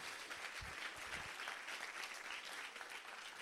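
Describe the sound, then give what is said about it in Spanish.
An audience claps steadily in applause for the word of God, a dense, continuous wash of many hands applauding together with a few low thumps early on, loud and sustained throughout with no voices standing out. “Alguien le da un aplauso a la palabra de Dios.”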